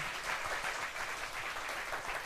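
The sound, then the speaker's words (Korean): An audience applauds steadily in tribute to the late grandmother who raised the guest, a dense wash of many hands clapping at once that holds at an even level throughout, without any voices over it. “우리 키워주신 할머니한테 하늘에 계신 할머니한테 박수 한번 부탁드립니다.”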